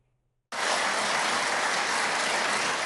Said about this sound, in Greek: Με ένα θερμό χειροκρότημα υποδέχθηκε η Ελληνική Βουλή τον πρόεδρο της Ουκρανίας, Βολοντιμίρ Ζελένσκι, 43 ημέρες μετά τη ρωσική εισβολή στην Ουκρανία.